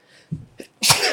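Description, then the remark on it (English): A single loud sneeze: a quick sharp intake of breath followed by an explosive, hissy burst that stands alone without any talking. “bless you. Me, bless you.”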